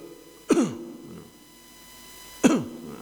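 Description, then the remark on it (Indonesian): Two short, forceful throat clearings spaced about two seconds apart, fairly loud, with quiet in between and no talking. “dehem temenan lho ya ojo dehem-deheman lho dadi wetenge mari sret”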